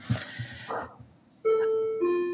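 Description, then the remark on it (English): A doorbell rung by an Amazon delivery chimes a two-note ding-dong, a bright higher tone falling to a lower one, both ringing loudly and sustaining, after a moment of faint, muffled background noise. “And that, of course, is Amazon now um, ringing my doorbell, which they haven't rung doorbells to say a package have arrived in two years and I'm dog sitting at the same time.”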